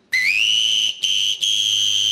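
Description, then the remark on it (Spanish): A person imitates a referee's final match whistle live on a radio show: three shrill blasts, the first longer and rising slightly in pitch, then a short one and a long final one, loud with no talking. “A ver el pitido final del partido.”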